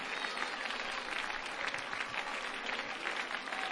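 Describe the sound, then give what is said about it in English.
An audience claps hands steadily in praise to the Lord at an evening gathering, a dense, sustained wash of applause from many people for several seconds without pause. “clap your hands unto the Lord and just give God some of the praise that has been going on here tonight.”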